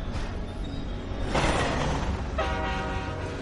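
A train rumbles past in Hutchinson, Kansas, on the railway between Topeka and Santa Fe, with steady low-frequency clatter, and a loud horn blares in sustained tonal blasts over the noise, without any talking.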